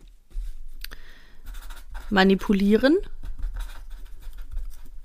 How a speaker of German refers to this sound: Ich zücke nun einen grünen Stift und ich schreibe auf ein Karteikärtchen